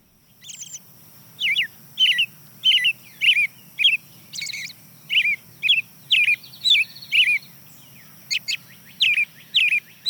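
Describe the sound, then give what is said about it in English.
An American robin sings at dawn, a steady series of clear, whistled caroling phrases with short pauses between them, prominent, while fainter birds call in the distant background over a low background hum. “Starts off with the American robin, the early riser, hear some birds in the distant background, but the next bird to join is a field sparrow.”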